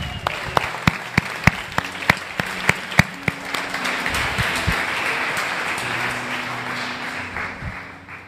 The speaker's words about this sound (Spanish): Voy a pedir al worship team que pase, por favor. Y bueno, ya están aquí. Es nuestro worship team. Un aplauso para nuestro worship team.